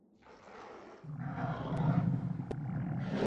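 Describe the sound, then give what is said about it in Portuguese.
A deep, rumbling growl from the monster Fluffy (Fofo) in a Harry Potter video game swells up and rolls on continuously. It is loud, with a raspy, snarling texture and no talking over it. “Acho que o Rosnado está vindo daqui.”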